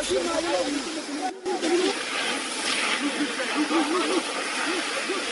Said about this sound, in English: a combination of warm-up and jogging, wearing protective gear, each of the trainees carried a pipe, running here and there with it, checking its kinks to ensure that it is not twisted as the water gushed out or passed through the nozzle in sprays.